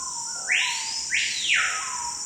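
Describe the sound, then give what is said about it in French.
A small, hard-to-see Amazonian bird gives a loud, ringing call of two sharply rising whistles in quick succession over a steady high insect-like hiss with no voices; a call archetypal of the tropical forest soundscape. “Pourtant, ce petit oiseau difficile à voir ne vit qu'en Amazonie.”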